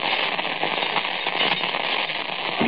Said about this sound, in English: We rattled the bar on it. It was padlocked. So you took the big cutters and you wrenched away at the bar.